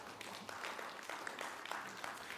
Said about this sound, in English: That, yeah, you can, that, I'm glad you, you can clap for that for sure. You don't have to.